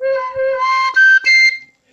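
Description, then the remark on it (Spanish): A breathy handmade wooden flute plays a short run of sustained tones, shifting pitch a few times before stopping, fairly loud with no talking. “Cuando ya está la flauta que suena así como les digo,”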